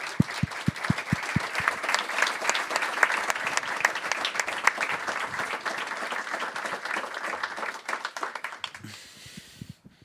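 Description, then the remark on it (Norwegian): An audience breaks into sustained applause welcoming the first secret guest, Runa Hove, Brann's greatest player, starting with a few distinct claps that swell into dense, steady clapping for several seconds before thinning out and fading at the end. “En stor applaus til Branns eh, største spiller.”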